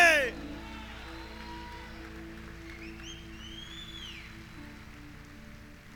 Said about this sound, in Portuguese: Nós aplaudimos e engrandecemos o teu nome.